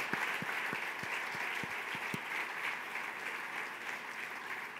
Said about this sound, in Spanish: Y si usted se atreve a dar un fuerte aplauso al Señor conmigo, yo lo hago.